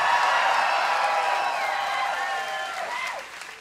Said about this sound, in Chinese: 我跟你讲，会讲这些话的人是没有来过新店行道会的人，因为在这里，不管什么年龄层，都比年轻人还火热。让我听一下你的欢呼声，可以吗？